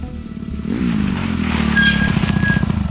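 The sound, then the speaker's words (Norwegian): The sheriff's one-wheeled motorcycle engine drones steadily with a rough, low rumble, carrying two riders through sharp bends in failing light, its pitch rising as it revs up and holds under acceleration, with a faint high whine layered on top. “ikke så begeistret over situasjonen, der han satt litt for tett inntil sheriffen på hans enhjulsmotorsykkel.”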